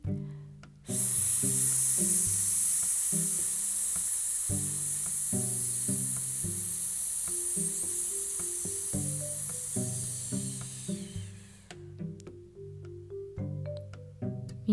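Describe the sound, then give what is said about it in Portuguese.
A voice holds a long, steady, bright 'sss' hiss for roughly ten seconds, loud and unbroken, while soft piano chords play underneath and carry on after the hiss stops. It is a breathing and voice exercise: breathe in, then make the S sound. “Solta o resto, inspira, o som do S.”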